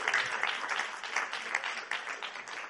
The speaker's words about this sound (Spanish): Amén. Le aplaudimos a Cristo.